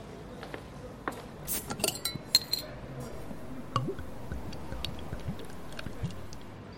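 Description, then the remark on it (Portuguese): Busy bar ambience: glasses and dishes clink and cutlery rattles in scattered sharp bursts over a steady low murmur of indistinct chatter, with a brief liquid squish. “Ó, pegando o gancho do restaurante, o que, que você acha da gente tomar uma ali no Bar do Nanã, hein?”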